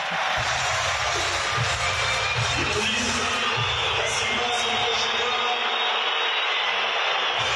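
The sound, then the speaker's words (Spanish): A large stadium crowd applauds Mbappé at a football match, a dense and steady wash of clapping and cheering that stays loud for the whole stretch, with no single voice standing out. “Mbappé, que fueron los aplausos.”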